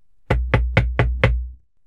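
Five loud, heavy knocks on a wooden door in quick, even succession, each with a deep thud and a brief resonant ring. No voices are present.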